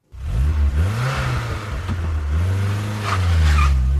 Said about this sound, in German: Keine gute Idee, so loszufahren. Der Motor mag es nicht und schon gar nicht die Reifen. Die werden da ganz besonders abgerieben.